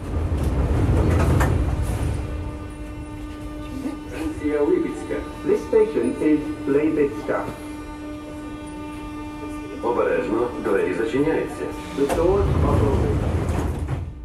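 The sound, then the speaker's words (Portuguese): Inside a moving train carriage in Ukraine, on a 700-kilometre journey passing through several Ukrainian cities: a steady low rumble and hum with a constant tonal whine, sliding doors, and passengers talking in the middle stretches before the rumble swells again. “O comboio fez 700 quilómetros com passagens por várias outras cidades ucranianas.”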